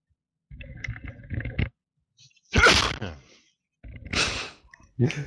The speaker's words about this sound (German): Gesundheit.